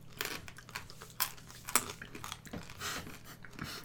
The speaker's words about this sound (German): Nochmal. Ich glaube, man hört uns, man hört uns die ganze Folge mal ordentlich durchknuspern.